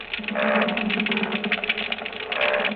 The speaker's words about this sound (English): Now, here is a chorus of croakers. Our microphone is right over this school of fish.